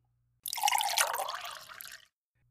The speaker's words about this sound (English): So please, pull up a chair, let's pour you a cup of coffee,